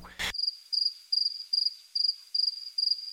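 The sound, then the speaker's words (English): Crickets chirp in a steady, evenly spaced rhythm, about seven high, buzzy pulses in three seconds, after a brief burst of noise at the start. “Crickets?”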